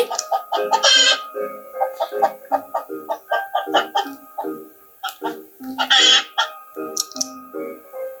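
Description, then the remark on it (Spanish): A hen clucks loudly in a quick, steady stream of short calls, broken twice by harsher, noisier squawks, with no other sounds around it. “Entonces la mamá pata le explicó, tu madre no hace cuac cuac como yo. Tu madre hace...”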